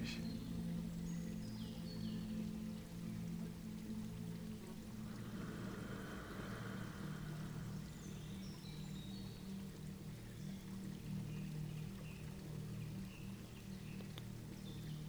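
Forest ambience: scattered high birdsong chirps drift over a constant, steady rush like flowing water, with a low continuous hum underneath and no voices.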